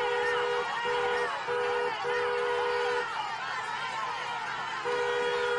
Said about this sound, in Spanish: Laureano se abre paso tocando el claxon.